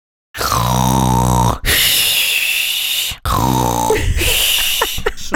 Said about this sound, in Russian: ты тут обязательно вставь мой, мой храп, пожалуйста, ладно?